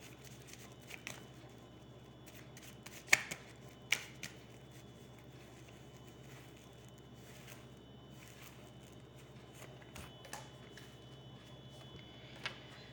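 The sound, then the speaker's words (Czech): Tarot cards being shuffled and laid down: soft papery rustling broken by a few sharp, crisp snaps of cards landing, spaced irregularly over a faint steady hum, with no voices. “Co se budoucnosti týče, já hodím ještě další karty.”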